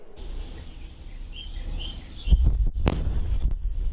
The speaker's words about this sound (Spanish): Este estallido estremeció decenas de hogares sembrando pánico entre habitantes del oeste de McAllen, Texas, a causa de la caída de un meteorito a tierra.